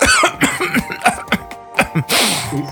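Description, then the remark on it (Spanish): A loud run of several short coughs in an uneven rhythm, ending in a longer, harsher, breathy hack. “Este, editorial, fue una tos editorial.”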